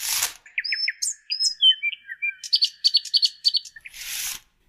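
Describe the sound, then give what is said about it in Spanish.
A bird sings a lively, varied song of clear whistles, rising chirps and quick repeated trills, fairly loud, with brief soft breathy noise at the start and end and no talking. “Están las canciones que escuchas en tu casa, en los shows que mires en YouTube, incluso cuando apagas todo, hay música en el canto de los pájaros.”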